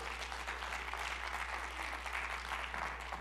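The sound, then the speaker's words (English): A church audience claps their hands in praise to God in a steady, dense wash of applause that holds at an even level for a few seconds, with no voices standing out. “Somebody clap your hands and give him some praise that he's in control.”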